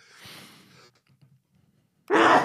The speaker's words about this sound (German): Gesundheit. Gesundheit. Dankeschön.